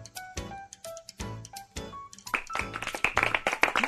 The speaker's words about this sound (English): Okay, it's a step up from womp womp womp to a polite golf clap.